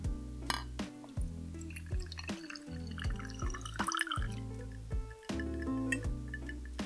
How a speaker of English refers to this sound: We're gonna get some ice cubes. Put the lid on our cocktail shaker there. And then strain that into our glass here.